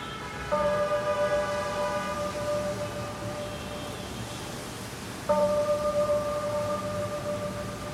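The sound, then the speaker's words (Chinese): A clock tower bell in Xi'an, China, rings twice to mark the time, about five seconds apart. Each loud strike leaves a long, steady humming tone with several overtones that fades slowly, and nobody speaks. “也可能平时也会有机会在一些城市的钟楼下面听见这样的钟声，但是今天当我们非常专心致志地来听这样的声音的时候，觉得非常动听。”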